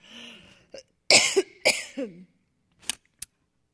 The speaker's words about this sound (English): Excuse me. oh, I don't want to cough into this microphone.